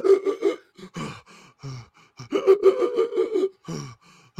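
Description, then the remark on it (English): A voice imitates a huge man's labored, wheezing breathing through the mouth: a run of strained, gasping breaths and throaty voiced heaves, fairly loud, repeating unevenly for several seconds with no words. “like seriously, and he was like wheezing the entire movie, and he's eating his popcorn, and he can't breathe out of his nose, so he's breathing out of his mouth the whole time.”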